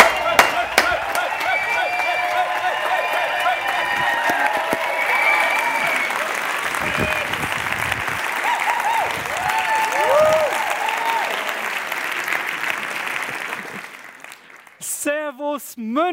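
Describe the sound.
A crowd at an ICF München church service claps and cheers loudly and steadily for about fourteen seconds, welcoming a speaker onto the stage, with shouts and whoops rising above the dense applause before it fades out and a voice begins speaking.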